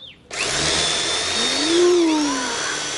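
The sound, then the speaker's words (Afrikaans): An electric drill, its tip set against a wall, starts up after a brief moment when the button is pressed and whines steadily, its pitch dipping slightly as the bit bores a small hole into the wall, running continuously with no talking. “Ek sit die punt van die boor teen die muur en dan druk ek die knoppie.”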